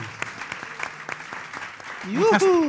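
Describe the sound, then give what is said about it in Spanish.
An audience bursts into applause welcoming a contributor who will talk about current affairs on the show, many hands clapping in an irregular, crackling patter at moderate loudness, with a voice rising in a drawn-out cheer or whoop near the end. “Un aplauso.”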